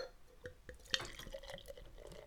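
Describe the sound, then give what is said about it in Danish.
IPA beer poured into the pourer's own glass, fairly quiet, with a trickling gurgle broken by a few sharp drips and splashes and one bright clink partway through. “Og så prøver jeg at hælde op her.”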